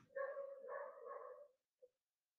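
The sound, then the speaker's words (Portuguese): Dogs bark, a run of drawn-out, tonal barks blurring together for over a second, then a brief pause and one short final yip. Faint, with no talking. “Não sei se vocês estão escutando, mano, mas se estiver escutando, os cachorros estão latindo muito.”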